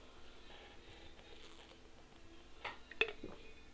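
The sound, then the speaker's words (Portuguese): Someone quietly drinks water: soft wet mouth sounds, then a couple of sharp gulping swallows near the end, with no talking. “Vou tomar uma aguinha porque né, ninguém é de ferro.”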